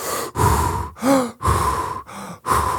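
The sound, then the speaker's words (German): A voice imitates heavy, adrenaline-charged breathing while flying over water: five loud, rasping breaths in a steady rhythm, some with a slight voiced groan, separated by brief pauses. “ich weiß noch, wie ich dann, wie es auf einmal so still wurde, dass ich meine eigene Atmung gehört habe, dass ich so, dadurch, dass ich das gerade so Adrenalin geladen fand, dann immer so”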